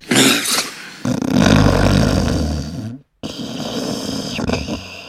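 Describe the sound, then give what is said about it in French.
A sleeper snores loudly and roughly with harsh rattling snorts, breaking off into a brief silence before a strained, gasping breath restarts breathing and the snoring carries on. “Le dormeur fait alors un effort pour relancer sa respiration.”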